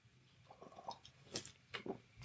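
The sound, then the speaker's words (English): Quiet mouth sounds of someone sipping Oktoberfest beer: a few soft slurps and wet swallowing clicks, ending in a brief sharper gulp, with no talking. “Ah, a little sip of my Oktoberfest beer here.”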